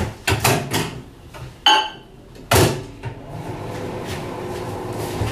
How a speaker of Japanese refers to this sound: ごめんねなんか作りながらでチンとかしながらガチャガチャガチャガチャやってますが。